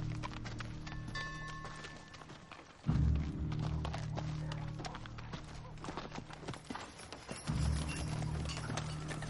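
A horse led by the reins walks past a church and along a dusty street lined with wooden houses, hooves clopping steadily in an even walking rhythm, with occasional heavier thuds and a low rumble underneath.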